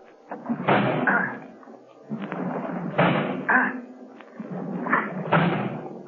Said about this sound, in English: I'm going to try to break down the door.